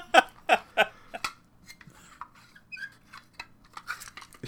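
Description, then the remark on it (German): Four sharp, squeaky plastic creaks in quick succession, then softer clicks and faint rubbing squeaks as an audio cassette is handled, with no one talking. “Also das hört sich an wie eine MC. Es ist eine MC.”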